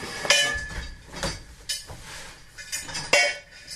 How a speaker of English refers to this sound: In an aluminium prefab in the playground at St Mary's School for Deaf Girls in Cabra, you can't move for the clatter of junk that spills out of bags and across the floor. It's a cacophony of tin and steel, old washpipes, washboards, bicycle wheels,